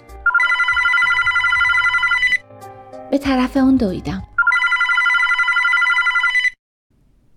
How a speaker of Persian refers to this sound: شنبه شب ساعت ده شب بود که زنگ تلفن به صدا در اومد